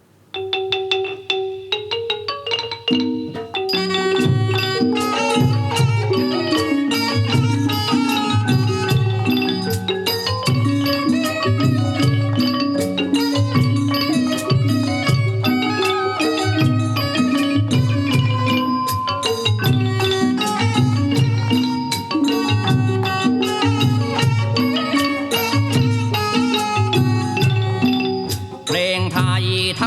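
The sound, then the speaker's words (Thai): A Thai piphat mai khaeng ensemble of Khru Seri Wangnaitham plays the Thai classical piece Khaek Kaloeng instrumentally: a brief soft, sustained opening, then loud, busy mallet melodies over a steady pulse of drum beats, continuing without singing. “ชื่อว่าเพลงแขกกะเริงจะมีวงผีพาดไม้แข็ง ครูเสรีหวังในธรรมบรรเลงรับในช่วงของภาคดนตรีด้วย ขอเชิญท่านรับฟังครับ”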